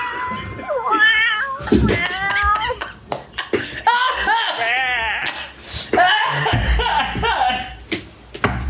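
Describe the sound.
A person imitates a cat, letting out a quick string of drawn-out, wavering meows, with a few chuckles mixed in between the calls.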